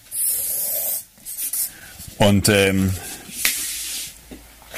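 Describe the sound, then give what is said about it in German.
A marker squeaks and scrapes across a whiteboard in short strokes, with a brief hesitant voice in the middle and more scratchy writing after it. “kann ja auch ein bisschen stärkeren Stift nehmen.”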